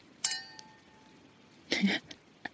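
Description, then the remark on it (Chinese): Glasses clink together in a toast celebrating the first camping trip and first gathering after the pandemic: a sharp, bright ring with a lingering high tone, followed by a burst of cheerful voices and a couple of small clicks. “我们一起举杯庆祝一下疫情后的第一个露营，第一个聚会，干杯！”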